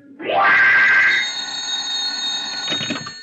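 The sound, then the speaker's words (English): A desk telephone in a gallery office rings out loud in one long, sustained burst, its metallic tone hanging in the air and fading slightly before a brief clatter near the end. “But I got around all right, even up the stairs and into the gallery office, where I sat down at the desk and stared at the phone and waited.”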